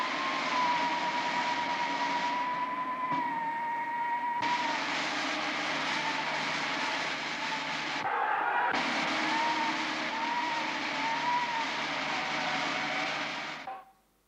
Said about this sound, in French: sur la bande-son, sur les bruitages amplifiés, vent qui siffle, hélicoptère, sirène.